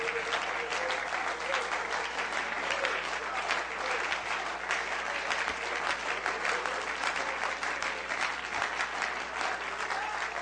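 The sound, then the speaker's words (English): A crowd at a men's retreat claps their hands to the Lord steadily for about ten seconds, many hands clapping in a dense, even patter that holds the same loudness from start to finish with no voices standing out. “Well, let's clap our hands to the Lord.”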